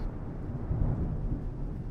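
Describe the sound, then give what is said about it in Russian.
A deep, continuous rumble of thunder rolls low and heavy, swelling slightly midway without any sharp crack. No voices are heard. “Кровавые цвета уходящего солнца просачивались сквозь плотные темные грозовые тучи.”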